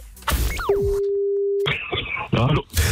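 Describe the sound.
A steady telephone line tone hums for about a second as a phone call is placed, preceded by quick falling electronic sweeps, then gives way to a burst of band-limited noise and muffled voice-like sounds.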